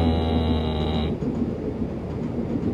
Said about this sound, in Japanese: 電車の声聞こえますよねちょっと音がすいませんうるさくて